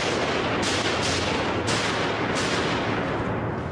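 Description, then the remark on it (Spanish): Five sharp gunshots crack out at uneven intervals, loud, over a dense, hissing wash of background noise with no one speaking; the shots are fired at John Lennon as he walks through the entrance of the building, heard by the doorman. “Mientras John Lennon atraviesa la entrada del edificio, el conserje oye cinco disparos.”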